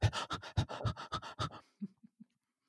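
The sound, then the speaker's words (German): A reader imitates a character's rapid, heavy panting: about eight quick, breathy gasps in a steady rhythm, fairly loud, then a few softer, fading puffs of breath. “Er keuchte.”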